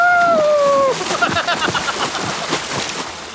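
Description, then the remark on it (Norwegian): Repeated, irregular splashing and sloshing of water from something bathing, preceded by a brief high, gliding tonal call at the start. “Bading står ikke på planen”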